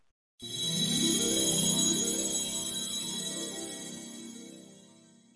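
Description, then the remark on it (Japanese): A phone ringtone for an incoming call plays on its own, a bright repeating melodic tune with rising and falling phrases that starts suddenly, holds steady, then slowly fades toward the end. “急に電話してきてどうしたの”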